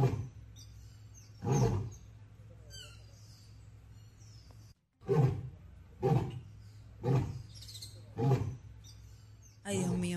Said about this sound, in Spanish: es como si el león estuviera tratando de toser, que se ve claramente que tiene problemas. Yo no sé, yo no. Escuchen.